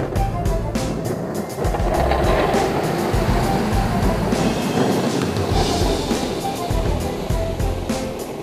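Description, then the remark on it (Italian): A snowplow rumbles along a snow-covered street, throwing up two large white waves of snow that fall to either side, its heavy engine drone under a continuous rushing, scraping hiss that stays loud for the whole stretch, with no voices. “Si stavano accendendo mezza sigaretta per uno, quando un'auto spazzaneve percorse la via, sollevando due grandi onde bianche che ricadevano ai lati.”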